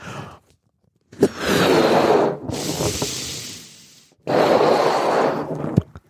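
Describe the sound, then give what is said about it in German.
A balloon being blown up: three long, forceful breathy blows, each a rushing whoosh of a second or more, the middle one thinner and hissier. No one speaks. “Und dann nimmt man den Ballon, pustet ihn auf”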